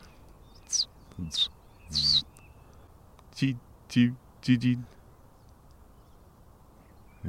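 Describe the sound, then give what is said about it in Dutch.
A common reed bunting sings a short phrase of three bright, chirpy notes, then people talk briefly in Dutch over a quiet outdoor background. “Een rietgors. Een rietgors? Ja, hij zingt daar.”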